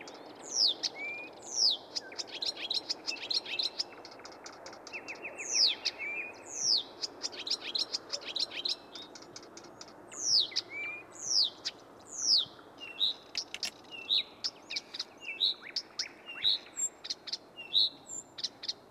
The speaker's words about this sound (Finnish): Tämä oli ihan, ihan tyypillinen viitakerttunen, että hyvin tämmöistä rauhallista toistelua